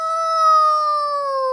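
A voice imitates a wolf's howl: one long, steady, loud wail that slides slowly downward in pitch, with no other sounds around it.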